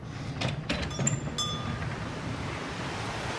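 Steady rushing of river water flowing past the undershot paddle wheel of a water mill, heard in the wheel chamber inside the mill, a dense continuous wash of sound, with a few brief metallic clinks and creaks near the start.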